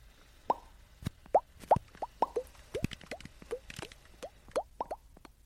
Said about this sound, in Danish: Har I gættet, hvad det er? det er sæbebobler. Måske har jeg lagt mærke til, at sæbebobler kan skinne i alle mulige farver. Specielt hvis man står ude i solen og laver dem.